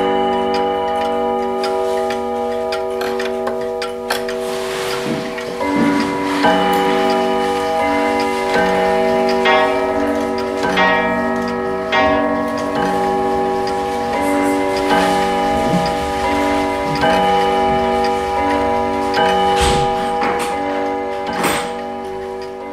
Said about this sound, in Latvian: Tikšķi un pulksteņu zvanu skaņas ir nemitīgs fons pulksteņmeistara Kaspara Brokāna darbnīcā, kur mēģināsim izprast, kādā veidā darbojas kvarca un mehāniskie rokas pulksteņi.